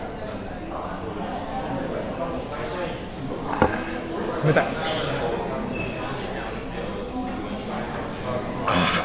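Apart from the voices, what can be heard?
glasses clinking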